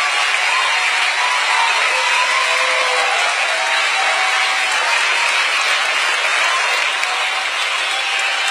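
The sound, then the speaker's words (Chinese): Loud, sustained applause from a large live audience, dense continuous clapping with cheers and whoops mixed in, steady in volume throughout with no speech over it. “有听到现场热烈的欢呼声和掌声吗？”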